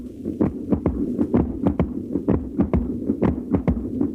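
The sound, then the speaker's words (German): A loud, dense mechanical din of 600 weaving looms standing in close rows in the large weaving hall of a mechanical weaving mill in Langenbielau, Silesia: rapid overlapping clacks as sleys beat and shuttles dart back and forth, in a steady rhythm over a continuous low droning hum, with no one speaking. “Wir hören das ohrenbetäubende Dröhnen der Schackertstühle.”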